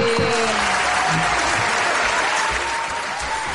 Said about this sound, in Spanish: aplausos para ti.